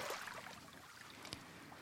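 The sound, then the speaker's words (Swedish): Soft, steady wash of water with gentle splashing as small waves lap at a sunny sandy beach on a summer day, with one slightly sharper slap near the end. The sound is quiet and continuous, and no voices are heard. “Vågorna skvalpar och ni vilar och har det bra. Ljudet av vågorna denna sommardag.”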